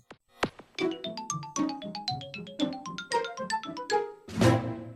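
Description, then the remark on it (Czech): A Nintendo GameCube console's startup jingle, heard when the console is switched on during its opening animation: a quick run of bright, chiming synth notes with a playful bouncing rhythm, ending in a fuller, ringing chord. It plays clearly on its own, with no talking. “Tohle je zvuk, který se rozezní, když zapnete Gamecube a vlastně je to ta úvodní startovací animace, kdy tam se točí to Gčko a tak, vykresluje čtverečky.”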